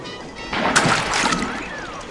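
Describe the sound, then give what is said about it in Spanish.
An axe is thrown into the Santiago River, a tributary of the Amazon coming from Ecuador, plunging into the water with a sharp splash, followed by a second or so of sloshing and bubbling before it fades. No voices. “llegó al río Santiago, afluente del Amazonas que proviene del Ecuador, y arrojó el hacha al fondo.”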